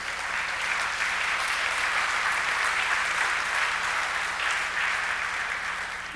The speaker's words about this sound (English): applaud for her. She's the one that put up with me.